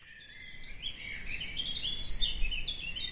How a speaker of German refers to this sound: Hören Sie das? Dieses Chilpen, Fiepen, Tirillieren. Da zwitschert nicht der Übermut. Die Vögel erzählen einander Geschichten. Von Liebe, Leid, Sehnsucht, Hoffnung und Begehren. Das ist kein stumpfes Trällern.